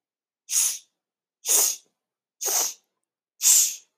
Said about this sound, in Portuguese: Agora vamos fazer com som de X. Inspira. Ó, barrigão, barrigão. E quatro vezes X.